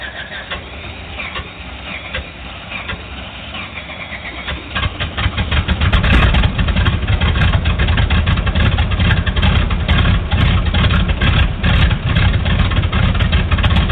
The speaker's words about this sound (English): Uh, REPA 29, you're clear to start engines.